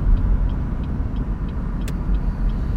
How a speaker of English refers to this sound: Sorry, I'm in traffic. I don't. I really like doing these when I'm driving, but people be people can't drive, so I will be getting distracted.